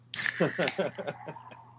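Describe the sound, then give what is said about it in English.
A can of nitro stout beer cracks open with a sharp hiss, followed by a second or so of bubbly, gurgling fizz that gradually fades. “I just I like how it sounds when you open that can.”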